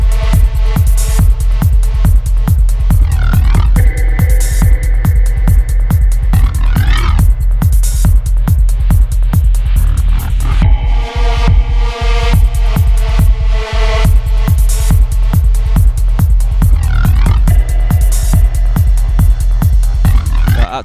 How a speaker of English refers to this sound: they're doing a lot of this sound now where they're completely dropping the snare huge booming kicks.